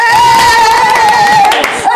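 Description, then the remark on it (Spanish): A woman claps for herself, rapidly for about two seconds, the loud claps running under a sustained high-pitched whooping tone. “me aplaudo.”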